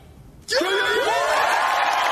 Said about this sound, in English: Oh. Uh, and the crowd now, loves it.